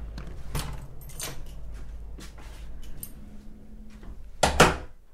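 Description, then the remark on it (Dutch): The front door of a family house, the speaker's parental home, being opened: a few scattered clicks and clunks of the latch and handle over a low rumble, ending in a louder rattling burst as the door swings. “Ja, laat jullie wel even binnen.”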